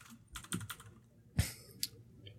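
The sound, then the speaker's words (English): Keys clatter on a computer keyboard: a quick burst of soft taps, then a few sparser, sharper keystrokes spaced apart. The typing is fairly quiet, with no one speaking. “sure I'd, I'd, I'd, love to just consistently type 100 per minute but the thing is it's like if i'm typing something up an email or, or a script or anything like that”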